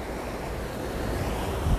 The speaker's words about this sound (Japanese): ちょうどすごい川のとこに来ちゃいました